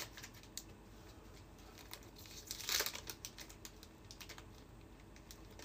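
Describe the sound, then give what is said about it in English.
A vintage Rap Pack trading card pack being torn open: steady crinkly, crackling wrapper noise with scattered sharp clicks, building to a brief louder rip about halfway through, then settling back to soft rustling. No one speaks. “Opening vintage rap pack”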